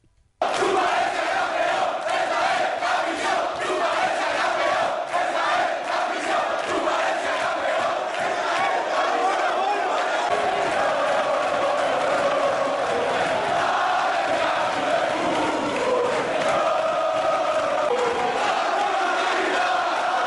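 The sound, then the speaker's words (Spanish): A football team sings and chants loudly in unison on a plane during their trip, a continuous raucous wall of voices lasting about twenty seconds, with occasional whoops and shouts rising above the rhythmic chant. “La verdad es que se pasaron todo el viaje cantando y bailando y, fue espectacular.”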